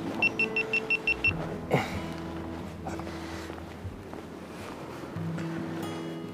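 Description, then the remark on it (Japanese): A rapid run of about six short, high electronic beeps from an action camera as it is powered on, on a mountain route, evenly spaced, then a steady low vehicle rumble with some clunks. “ちょっと音を止めようかなピピピピピってアクションカメラで言うとやっぱりちょっと今電源入れるからあれなんですけどなんか撮ってる時にこう音がねやっぱり鳴らない方がうるせえしなと一回ちょっと音を止めて”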